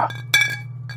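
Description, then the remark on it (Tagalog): Glasses of liquor clink together in a toast, one bright ringing chime followed by a softer second tap, over a steady low background hum. “Ah, tagay muna tayo. Oh, itong alak mo.”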